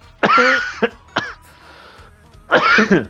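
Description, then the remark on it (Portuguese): Someone coughs in several harsh bursts: a strong cough, a couple of short follow-up hacks, then another hard cough after a brief pause. “Eu vou tossir.”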